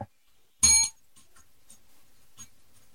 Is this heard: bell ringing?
yes